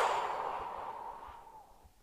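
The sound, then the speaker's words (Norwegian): A slow, steady exhale of breath after holding it, during a guided breathing exercise; a soft airy hiss that gradually fades over about two seconds, with no talking. “Og pust ut.”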